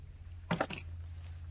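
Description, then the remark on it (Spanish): Car keys land on a tabletop with a brief jingle and clatter, two or three quick metallic taps, set against a steady low background hum. “Toro deja las llaves del coche sobre la mesa.”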